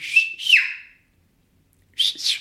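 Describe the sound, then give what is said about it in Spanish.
A person whistles a short family signal call: two quick rising-and-falling notes, a second of silence, then another pair of bright whistled notes. No talking. “Pero, pero ¿sabías quién te estaba hablando con el chiflido?”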